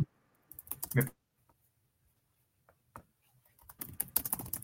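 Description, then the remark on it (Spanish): Rapid clicking of someone typing a WhatsApp message on a keyboard, in two quick flurries separated by a quiet pause with a few scattered taps. “Déjenme le mando un WhatsApp.”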